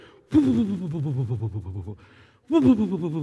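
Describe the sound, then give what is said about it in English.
A voice imitates a toilet paper roll unspooling with a fast, fluttering warble that runs for over a second, pauses briefly, then starts again in a second loud burst. “They're going to use so much toilet paper when you hear them go, it's like,”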